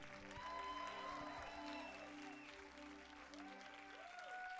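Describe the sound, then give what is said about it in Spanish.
Sustained audience applause, a dense steady wash of clapping lasting several seconds at an even loudness, with sustained musical tones and faint voices underneath. “Dale un fuerte, fuerte, fuerte aplauso al Jesús.”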